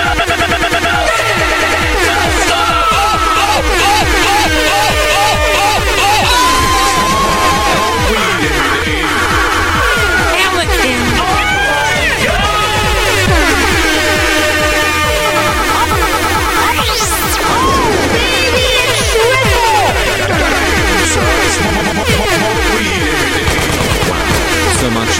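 A loud, chaotic MLG-style meme remix played on the MLG edition of the Planet Dance Mix Show, with a pounding rhythmic beat, layered gunfire-like bursts, buzzing synth tones and a sharp rising sweep, playing continuously with no talking.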